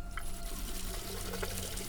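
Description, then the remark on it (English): Steady rush of water running from a tap as hands are rinsed after lathering and scrubbing, with small splashing shifts as the hands move through the stream, continuous for a couple of seconds with no voices. “After you lather and scrub, you need to rinse your hands well under clean running water.”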